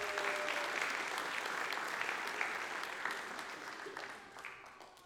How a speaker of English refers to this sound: I think we have for our uh, Girls U19 staff this year, I think we got Coach Tyler in the room, so big round of applause for Coach Tyler, please.